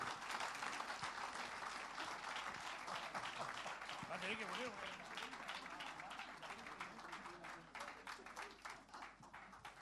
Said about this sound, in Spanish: Un fuerte aplauso de alabanza y le dejamos en este lugar, en esta noche.